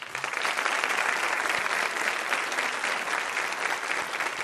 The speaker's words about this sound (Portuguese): Dos 40 imortais, temos a honra de receber e aplaudir agora esses três.